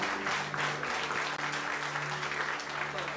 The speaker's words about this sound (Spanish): Denle un fuerte aplauso al Señor y que Dios les bendiga.